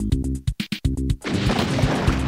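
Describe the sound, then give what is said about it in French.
Loud explosion bursting in after a second of choppy, pulsing tonal sounds, then a dense roar of rumbling, crackling noise that sustains to the end. “An explosion.”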